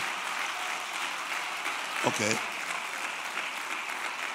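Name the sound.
audience applauding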